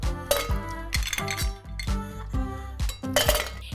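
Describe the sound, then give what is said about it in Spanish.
Ice cubes clink one after another into a stemmed glass while a drink with cucumber and lime juice is being prepared, about a dozen bright, ringing taps in a quick, uneven rhythm, fairly loud, with no talking. “Vamos a colocar suficientes hielos en nuestra copa.”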